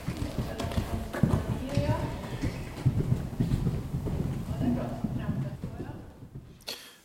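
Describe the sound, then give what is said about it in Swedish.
A horse's hooves thud and clop in an uneven rhythm on soft footing in a riding hall as it approaches and takes a jump over an obstacle about 60 centimetres high, with voices murmuring in the background before the sound fades out. “tillsammans med hästen Trolle sig över ett cirka 60 centimeter högt hinder i ridhuset”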